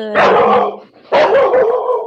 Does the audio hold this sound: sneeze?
no